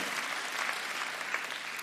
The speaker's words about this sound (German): Vielleicht kann jemand, nein, wir geben dem Herrn mal an der Stelle einen mächtigen Applaus. It's wonderful! So powerful!